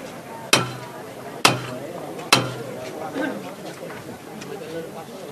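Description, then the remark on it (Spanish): Three sharp, loud metallic knocks from the capataz's knocker (martillo) on a procession float ring out at an even, steady pace, each one ringing briefly before fading, over a murmuring crowd with people talking in the background. “Se lo ha dejado todo y el martillo otra vez.”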